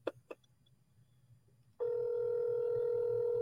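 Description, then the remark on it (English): Two quick clicks, then about halfway through a steady, loud telephone tone switches on and holds unbroken to the end, like a call ringing through on the line. “Oh, it rings.”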